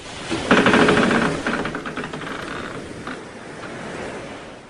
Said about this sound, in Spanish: Pero una noche se aproximó una ola del tamaño del barco que casi tumba la nave.